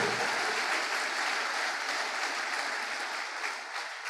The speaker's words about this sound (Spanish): ¿Cuántos dicen amén? El aplauso al Señor. Aleluya.